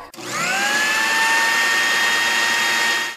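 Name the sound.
blender running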